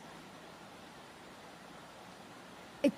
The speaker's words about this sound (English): You can see the boulders. You can see the water gushing, flowing. Um, oxygen, all the bubbles were in the middle.